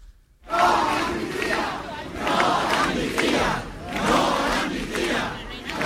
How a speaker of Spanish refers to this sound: No a la amnistía gritaban también manifestaciones en Granada, Córdoba y el puerto de Santa María.